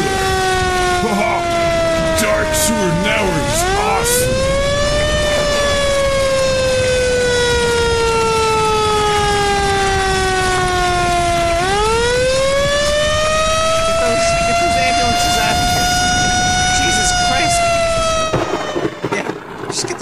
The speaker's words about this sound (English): Oh, those ambulances, man.